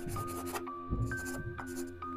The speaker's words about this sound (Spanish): Este señor gordo tomó una hoja de papel en blanco que estaba en el cuadernillo. De su bolsillo sacó un lápiz y empezó a hacer algo.